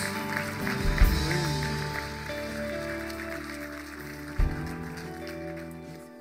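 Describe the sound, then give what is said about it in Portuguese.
An audience applauding to the heavens in a steady, dense wash of clapping that holds for several seconds, with sustained musical tones underneath and two brief low thumps. “Dá um grande aplauso aos céus e confessa a tua disponibilidade diante dele.”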